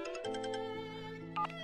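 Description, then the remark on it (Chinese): A mobile phone ringtone for an incoming call plays a short electronic melody of sustained, bright synth tones with a few quick chiming notes, fairly loud and with no voices. “手机一闪，又是杨子怡的来电。”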